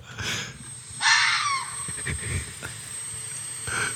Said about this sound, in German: Das ist die Audiodatei, wo Wikipedia sagt, so klingen Füchse.